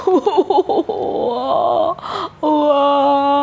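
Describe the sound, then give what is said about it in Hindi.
A voice imitates the loud wailing cry of a monster with a stomach ache: a few choppy, wavering sobs, then long drawn-out moaning wails with a brief break, strong, with no words spoken. “ऐसे करके रोता था अब उसकी रोने की आवाज़ भी उतनी ही लाउड हुआ करती थी तो लोग भी डरते थे पशु पक्षी डर जाते थे जानवर डर जाते थे”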